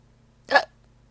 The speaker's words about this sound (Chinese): 呃，可怜的…又开始打嗝，这次比刚才的声音还大。